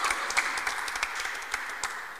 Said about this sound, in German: So, das ist, ihr könnt ruhig klatschen, das ist okay.